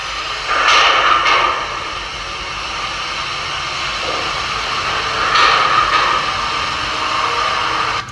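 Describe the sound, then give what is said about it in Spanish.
Two heavy metallic slams, one early and one later, ring out over a constant hiss as a prison cell door bangs shut with nobody touching it, caught by a recorder in a noisy, low-quality recording, with no voices. “Es increíble el ejemplo que nos das, un portazo de una celda sin que nadie lo toque, sin que estén ustedes.”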